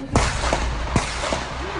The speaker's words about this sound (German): feuert auf den Mann auf dem Balkon, aber die Schüsse verfehlen diesen.